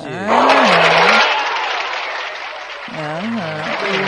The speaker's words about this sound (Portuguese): Parabéns, ah, é aplausos.